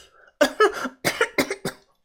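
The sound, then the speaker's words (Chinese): A fit of harsh, raspy coughing from someone clutching their neck: about six or seven loud bursts in quick clusters, each sharp and breathy, with brief gaps between them and no talking. “他捂着脖子是连连的咳嗽啊。”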